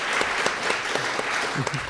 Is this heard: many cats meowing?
no